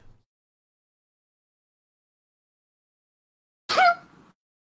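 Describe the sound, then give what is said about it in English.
After a long stretch of near silence, one loud sneeze bursts out suddenly and trails off quickly into a short breathy tail. “Didn't realize you were allergic to veterans.”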